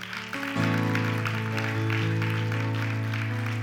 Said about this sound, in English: Yeah, give Jesus a hand clap for that.